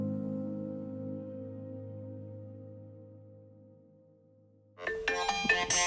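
mobile phone ringing

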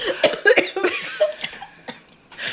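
coughing

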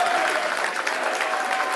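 stadium crowd applause

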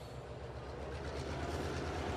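train running on rails

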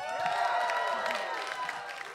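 audience applauding and cheering

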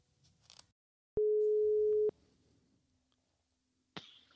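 telephone ringing tone

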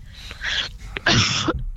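cough

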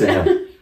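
dog making a noise

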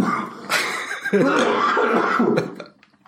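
cough

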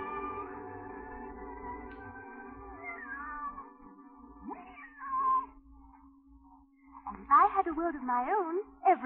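cat meowing

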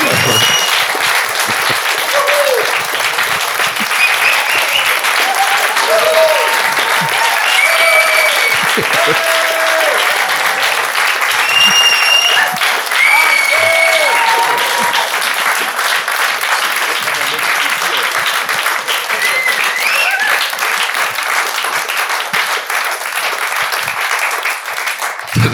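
roaring applause

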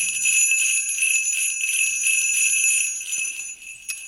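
jingle bells ringing

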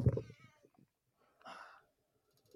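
cat meowing

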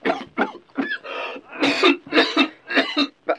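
cough

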